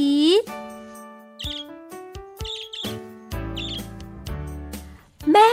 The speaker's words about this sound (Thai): ฉับพลันกุ๊กไก่ปวดท้อง กุ๊กไก่นั่งร้องไห้ครางอีอี